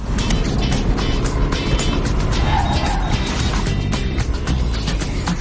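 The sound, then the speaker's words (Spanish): A self-driving car speeding along with its steering wheel moving on its own, its engine, tire and wind noise forming a loud, steady roar that fills the whole recording without easing off, heard from inside the vehicle. “Y vamos muy deprisa.”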